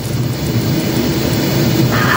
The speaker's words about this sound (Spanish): Well, ladies and gentlemen, with that very nice landing, We like to wish you a warm welcome to Seattle.